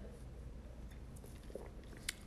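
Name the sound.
sipping wine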